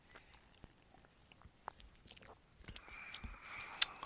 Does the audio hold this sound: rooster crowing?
no